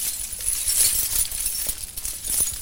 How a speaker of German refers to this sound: Aber die vielen Schlüssel, die Gianni Crea in seiner Hand trägt, sind weithin zu hören.